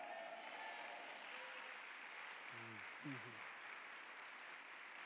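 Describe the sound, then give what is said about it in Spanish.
An audience applauds with a steady, dense wash of clapping that holds at an even level for the whole stretch, with a brief voice rising over it partway through. “Vamos a ver si vas a seguir aplaudiendo cuando siga leyendo abajo.”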